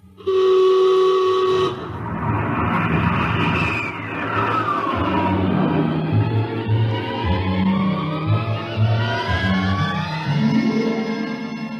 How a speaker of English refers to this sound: We'll blast off on your signal. Bridge to engine room. Prepare to blast off on navigator's signal.